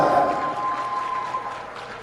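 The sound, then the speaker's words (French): An audience claps steadily for the full two seconds, a dense, fairly loud wash of applause that eases only slightly toward the end, with no one speaking over it. The applause is for the president of the board of the Centre francophone de Toronto as he comes up to the stage. “Allez-y, faites plus de bruit. Vous êtes capables.”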